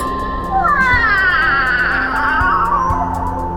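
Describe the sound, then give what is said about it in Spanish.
A female cat named Dina lets out one long, drawn-out meow with a wavering, whining pitch, fairly loud, over a steady background hum with a few faint knocks. “Shu, eh, Que alguien, que alguien saque a esta gata.”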